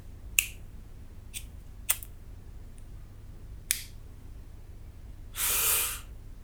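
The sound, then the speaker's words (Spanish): A cigarette lighter clicks sharply four or five times at uneven intervals, then a short, breathy hiss of flame flares up and dies away. No one speaks. “A tientas buscó un paquete de cigarrillos sobre la mesita cercana. El encendedor.”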